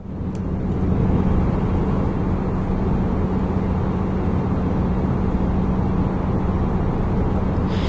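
Steady airplane cabin white noise: a loud, constant low rumble with a faint droning hum, unchanging and continuous throughout, with no voices.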